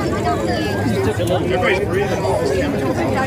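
A large crowd, including children, chatters steadily while gathered around a bonfire burning a large quantity of masks in Boise, Idaho. Many overlapping voices blend into a dense, continuous hubbub at moderate loudness, with no single speaker standing out.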